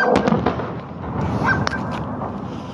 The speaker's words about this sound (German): Und darauf sieht man ein helles Objekt, das in der Nacht mit hohem Tempo aufsteigt. Plötzlich kommt es dann zu einer Explosion.